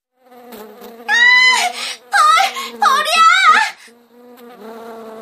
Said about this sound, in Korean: 교실로 들어와 조용히 자리에 앉는데 갑자기 … 비명을 질렀다.